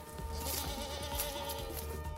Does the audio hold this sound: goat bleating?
yes